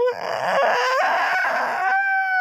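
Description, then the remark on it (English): A loud, high, strained vocal squeal made with a person's voice using the thin edges of the vocal cords, with a wavering pitch that bends and creaks like a slowly opening door, sustained for a couple of seconds with no talking. “Like almost a creaky door, like things yeah. that probably most people don't want to hear.”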